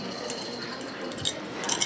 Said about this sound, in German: Leg jetzt bitte den Rucksack in die Schale. Und du musst alle Metallgegenstände hier ablegen. Deine Uhr, Münzen und so weiter.